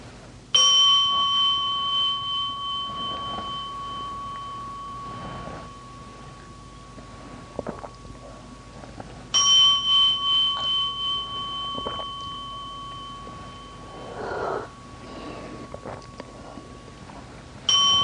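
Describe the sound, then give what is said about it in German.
A bell is struck twice, several seconds apart, each strike ringing out with a clear, sustained metallic tone that slowly fades. No one speaks. “jetzt will Jürgen erstmal die Glocke schlagen”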